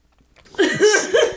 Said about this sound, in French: on va attendre que c'est fini. C'est bon ma respiration, euh, ma bouchée de salive va pas passer dans le bon trou.